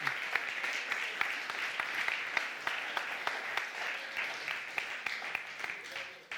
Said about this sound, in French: Je propose qu'on applaudisse ces jeunes qui viennent ici devant courageusement.